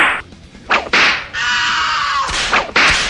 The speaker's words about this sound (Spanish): Otro, otro, otro latigazo.